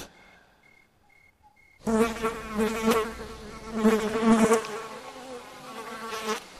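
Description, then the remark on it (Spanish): A fly buzzes loudly at night in a room, its droning hum rising and falling as it circles, after a brief stretch of near silence with a few faint high beeps. “Parece también que esta mosca que desvela mi sueño hace hablar mi callada soledad.”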